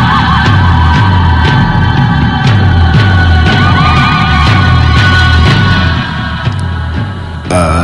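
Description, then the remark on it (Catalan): Dark, droning music by a Norwegian band, from an album released in 1995, made as music for invoking the devil: a steady pulsing low beat and wavering, siren-like high tones, loud and continuous with no voices, shifting abruptly near the end. “Eh, sí, la música que estem escoltant de fons eh, és precisament música per fer invocacions en el dimoni, però bé, nosaltres estem fent les pregaris.”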